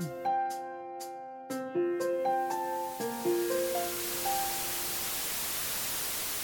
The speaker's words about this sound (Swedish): I en mindre studie som ni nu följer upp så såg ni att vitt brus, alltså det som vi nyss hörde, mm. eh, och så låter, låter lite grann som ett vattenfall, kan hjälpa barn med mm. ADHD.